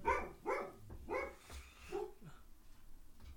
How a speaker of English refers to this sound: Every time I fucking talk, he barks. It's like he knows what I'm doing in here.